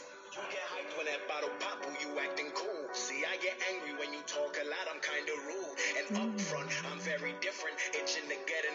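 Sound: rap song playing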